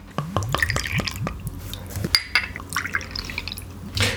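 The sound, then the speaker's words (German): Liquid glugs and splashes as a Dewdrop Black Blackcurrant drink is poured from a bottle into glasses for four people to taste, with rhythmic gurgling pulses, then a second pour after a brief clink. “gieß doch mal ein.”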